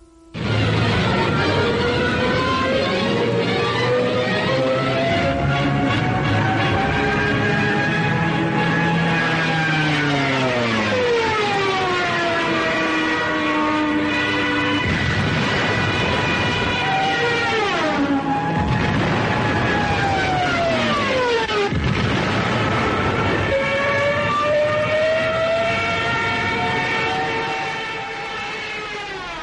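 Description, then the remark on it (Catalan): Loud, continuous wailing sirens, known as the Trumpets of Jericho, from dive-bombing planes, their rich, harmonic tones sliding down in pitch again and again over a low rumble, with no voices for about thirty seconds. “I de que just abans, per ficar por, per desmoralitzar l'enemic, els avions feien sonar unes sirenes que eren conegudes com això, les trompetes de Jericó.”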